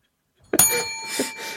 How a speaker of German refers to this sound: Darf ich jetzt die Glocke hauen?